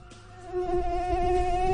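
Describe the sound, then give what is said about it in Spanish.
A steady, high-pitched mosquito whine hums continuously, growing slightly louder after a moment, with faint low rumbling underneath and no talking. “Que uno siente que lo tiene encima y empieza a darse uno palmadas en la cara y se empieza a en la jeta y sigue ahí.”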